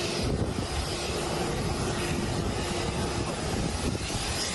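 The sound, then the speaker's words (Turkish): A steady, loud roar of the twin engines of a passenger plane of a private Somali airline, landing at the airport in the capital Mogadishu with 34 people aboard, continuous throughout with no pauses or voices. “Çift motorlu uçak başkent Mogadishu'da havalimanına indikten sonra pist dışına yöneldi.”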